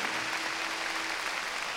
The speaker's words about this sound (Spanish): Ese Cordero tiene un nombre y el nombre es Cristo Jesús nuestro Señor. Démosle palmas fuertes a Él. Gloria a Dios.